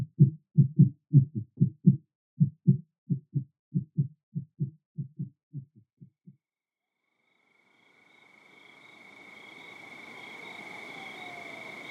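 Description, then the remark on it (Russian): Deep, muffled heartbeat thumps pulse in steady doubled beats for about six seconds, then stop; after a pause, a thin high whine and a swelling hiss of noise rise up. “Поправив капюшон, напихав в парку столько мечей, сколько смог уместить, мастер демонического меча вновь завел свой пульс.”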